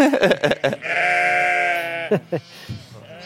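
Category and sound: animal, ewes bleating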